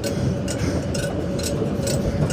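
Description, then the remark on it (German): A passing tram: a steady, heavy low rumble with sharp clacks repeating at an even rhythm, roughly twice a second, fairly loud, with no voices. “Ja, Leute, ihr habt es bestimmt gehört, das war gerade meine Straßenbahn, die ich verpasst habe.”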